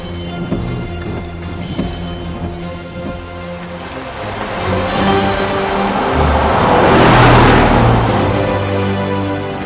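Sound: car slowing down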